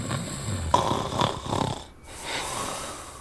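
An adult man snoring while asleep on a living-room sofa, a few rough, rattling breaths rising and falling, with a short quiet pause before the next snore begins.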